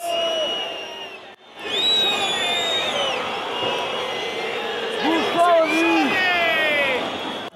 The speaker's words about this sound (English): Final whistle goes. It is Fiorentina nil, Lazio four, and you can hear the whistles from the home fans.